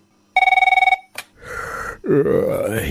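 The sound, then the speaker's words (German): A loud telephone rings in one short, rapid trilling burst, followed by a click like a receiver lifting, some rustling, and then a low groggy vocal grunt, at the start of a phone call between two metal and hard rock icons. “Lord of the Ring Rings. Zwei Metal-Hardrock-Ikonen unterhalten sich am Telefon.”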